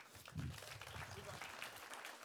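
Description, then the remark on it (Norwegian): An audience applauds, a dense, steady wash of many hands clapping that holds at an even, fairly loud level for a couple of seconds without fading. “og så kan vi gi en applaus.”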